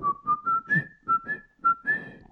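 A person whistles a short, bouncy jingle of about eight quick notes as an improvised jingle for a betting tips segment. The notes rise slightly in pitch, with breathy puffs on each note, and the whistling is clear.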